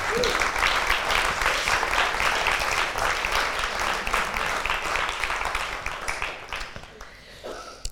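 An audience applauds with dense, steady clapping that stays loud for several seconds, then thins out and fades toward the end.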